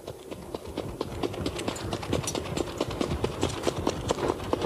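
Trotting horse hooves beat in a steady, fast rhythm, fairly loud, with a rumbling, rattling undertone throughout and no voices. The trotter Ina Skott, driven by Kjell P Dahlström, stretches out at the end of her warm-up.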